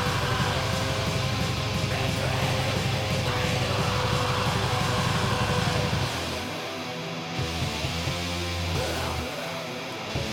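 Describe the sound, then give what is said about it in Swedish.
A fuzzy, lo-fi black metal guitar riff plays loud and dense, a constant distorted wash that shifts to a choppier, sparser pattern partway through. No one speaks. “Uppfriskande riff. Det är kul att det är så jävla luddigt allting.”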